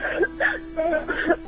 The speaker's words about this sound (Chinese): 嗯，好好的哭一哭啊，没有关系。嗯，我听到你哭声里好多委屈哈，好多辛苦，好多隐忍哦。